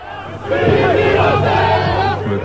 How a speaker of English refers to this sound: I saw this crowd and I heard these shouts. The crowd is furious. You can hear it. They're Rabin supporters, and what they're chanting is Bibi Rotsach," meaning Bibi is a murderer.